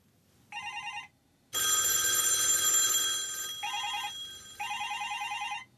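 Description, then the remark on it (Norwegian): An old-fashioned analog landline telephone bell rings loudly in several bursts of rapid metallic clanging with short pauses between them. No one speaks. “de aller fleste av oss har gått over fra den gode, gammeldagse, analoge fasttelefonen til mobiltelefon for lengst.”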